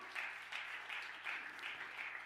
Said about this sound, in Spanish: ¿Cuánto le dan un aplauso fuerte a papá?